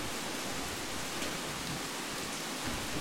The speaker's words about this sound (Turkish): Şimdi Amazon'da olduğumuz alanın yağmur sesiyle seni tekrardan bırakıyorum.